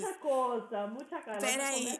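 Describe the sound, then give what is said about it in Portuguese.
A sparkling water bottle is cracked open right at the microphone, with a bright, sustained fizzing hiss lasting under a second, while a person keeps talking over it. “Eu abri uma água com gás aqui na boca do microfone.”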